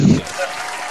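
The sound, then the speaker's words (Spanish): A canned applause effect played from a soundboard as applause for a news item, a steady wash of many hands clapping at moderate volume, opening with a brief low thump and holding evenly for about a second. “Propongo al que el amo de la botonera ponga unos aplausos a esta noticia.”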